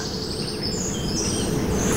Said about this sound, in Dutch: En in de verte horen we een middelste bonte specht.